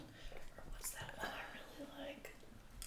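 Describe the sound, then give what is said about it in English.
Someone whispers in a soft, breathy stream of hushed syllables, with faint sibilant hisses and quiet behind. “Why are you whispering?”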